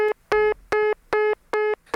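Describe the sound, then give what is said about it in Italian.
Telephone dialing tones: five short, bright electronic beeps in a steady, evenly spaced rhythm, each lasting about a fifth of a second, loud with brief gaps between them and no voices. “Pentasuglia, stocca il telefono!”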